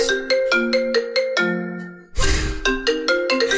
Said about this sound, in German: Das ist der Wecker, Leute. Das ist der Wecker. Das ist der Wecker.